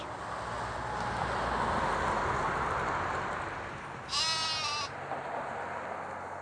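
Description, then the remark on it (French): A single white sheep bleats once, a short wavering cry partway through, over a steady outdoor hiss of wind or ambient noise. No one speaks. “Le premier qui passa ce jour-là fut un mouton tout blanc.”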